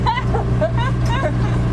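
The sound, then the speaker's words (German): A tractor engine rumbles steadily and loudly, a constant low drone running throughout while the person driving it for the first time talks over it. “Ich fahre gerade das erste Mal im Leben Traktor.”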